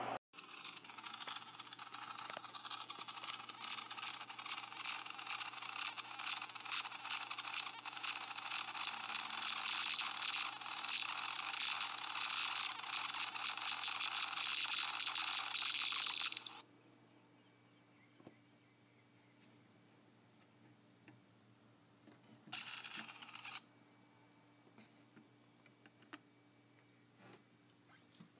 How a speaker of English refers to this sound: What you just heard is a plastic elephant magnet with batteries in it, and when you push on it, it goes so it sounds like an elephant.